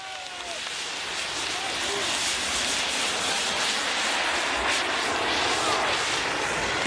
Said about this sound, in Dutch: nou, dat ja, klinkt als een jetpack. Ja, precies. Het klinkt precies als, als een uh, voormalig skikampioen dat het kanaal oversteekt in een jetpack, toch? als je daar een geluid aan zou moeten koppelen, zou deze zijn.